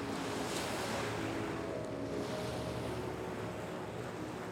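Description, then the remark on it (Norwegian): A boat heading for the mainland moves steadily across a calm fjord with small ripples, a low engine-like rumble blended with constant washing and splashing, fairly loud, with some wind buffeting throughout. No one speaks. “Båten setter kursen mot fastlandet. Det er stille på fjorden. Bare små krusninger under overflaten.”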